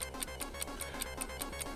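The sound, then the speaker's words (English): A stop clock in a video game ticks in a fast, steady rhythm, about nine crisp clicks in under two seconds, over a low, constant hum with no one speaking. “Is that the Stop. clock?”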